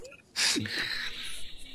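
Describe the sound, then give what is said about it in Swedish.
A dog lets out a short, breathy whine, a quick rising-and-falling whimper that trails into a thin, high sustained tone, with no talking around it; the dogs whine in the background during a recording session. “Varje gång vi spelar in då, då blir det gnällgnäll gnäll på dem.”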